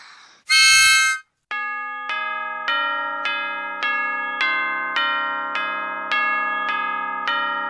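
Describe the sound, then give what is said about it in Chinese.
Morning church bells ring out over the city of Vienna in a steady, even peal, about eleven strikes less than a second apart, each rich ringing tone overlapping the last. A short bright burst comes first. No voices. “清晨的钟声在维也纳的城市上空响起，街道上渐渐喧闹起来。”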